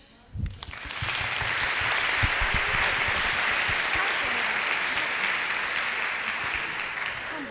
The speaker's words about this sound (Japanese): ここでじゃあプレゼンテーションをまず1組、えーと、と日本チームから代表してお願いしましょう拍手